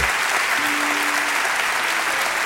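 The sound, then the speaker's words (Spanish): Dense, sustained applause from a large audience for Norita Cortiñas, steady and loud throughout, with a brief faint tone rising above the clapping midway. “El tremendo aplauso que le brindaron a Norita Cortiñas cuando, bueno, no, anoche, viernes, no, el viernes anterior.”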